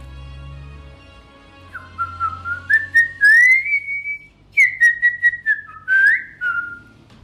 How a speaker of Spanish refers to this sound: Dicen que salió callado, como encerrado en sus pensamientos, y se fue silbando bajito, silbando un chamamé, porque era un piojo chamamecero.